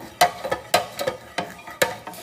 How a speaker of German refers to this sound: Vielleicht ähm, findet ihr es ja auch ganz witzig, so die, diese Geräusche beim Kochen zu hören.